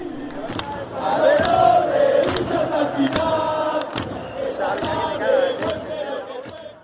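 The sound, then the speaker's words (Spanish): A deafening stadium crowd of fans in white and red shirts shouts and roars continuously as their team plays, a dense wall of many voices with rising chant-like swells and sharp bursts of yelling throughout. “Al entrar, los gritos eran ensordecedores.”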